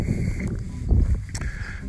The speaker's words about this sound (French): Euh, je je m'attendais pas à ce qu'il y ait des couloirs de vent autour du lac.